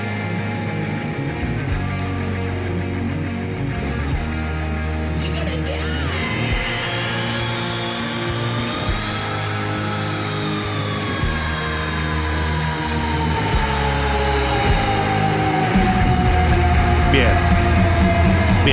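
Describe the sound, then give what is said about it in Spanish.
A sustained, high-pitched rock scream from a 2012 performance rises and holds for several seconds over loud, full-band music, then slowly slides downward as the instruments keep driving underneath. “A ver el grito 2012, ¿cómo era?”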